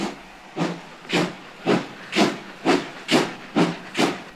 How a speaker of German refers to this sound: Die Dampfzüge machten weite Reisen nicht nur schneller und bequemer, manche Reiseziele wurden durch die Eisenbahnstrecken überhaupt erst erschlossen.